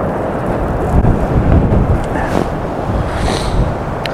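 Heavy wind buffets the microphone outdoors, a loud, continuous low roar that swells and gusts unevenly over a few seconds, with no voices present.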